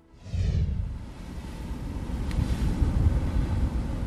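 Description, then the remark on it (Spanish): A ship's engines rumble low and steady on deck while wind buffets the microphone and the sea rushes alongside, a continuous, enveloping noise with no one speaking, as the ship sails from Punta Arenas toward Antarctica. “Ya navegamos si nos asomamos a cubierta podemos sentir el viento y escuchar el mar, además de los motores del barco.”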